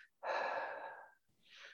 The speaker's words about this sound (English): your breathing, our breathing, our breathing in and out. When we breathe out,